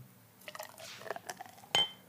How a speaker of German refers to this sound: Ich gieße jetzt nochmal Bier ein, ja? Ich versuche das mal.